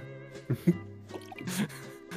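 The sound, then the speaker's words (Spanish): Someone abruptly spits out a mouthful of drink, with a few short, wet spluttering bursts and dripping liquid sounds over a couple of seconds, fairly quiet overall. “tuvo que escupir lo que está tomando.”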